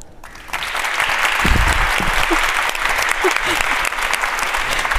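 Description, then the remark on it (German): Loud, sustained audience applause fills the whole stretch, a dense steady roar of clapping with no one speaking over it, as legal scholar Professor Christoph Möllers is called onto the stage. “Und jetzt fangen wir an mit dem ersten Thema und bitten auf die Bühne bitte unter tosendem Applaus den ähm, Rechtswissenschaftler ähm, Professor Christoph Möllers.”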